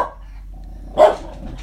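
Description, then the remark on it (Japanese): A dog named Rai lets out a single sharp bark about a second in, loud, with a quieter yelp-like sound before it and a low background hum throughout, barking as a neighbour on a motorbike comes home. “近所のバイクの人が帰ってきて「ライが吠えてますすいませんうるさくて」静かにしてない。”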